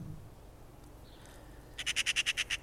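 A Eurasian magpie gives its harsh chattering call: a rapid, evenly spaced burst of about eight loud, rasping notes, preceded by quieter background sounds and no speech.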